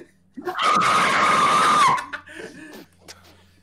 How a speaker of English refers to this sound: A new taller phantom appears, his low his low voice and gravely dressed just like Nick was, Carl screams again.